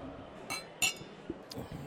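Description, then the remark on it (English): Beer glasses clink together in a toast: one bright, ringing chime stands out among a couple of softer taps, over a faint murmur of background chatter. “Well, cheers. cheers. Yeah, cheers.”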